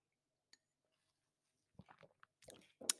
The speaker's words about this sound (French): Alors je bois une petite gorgée de thé.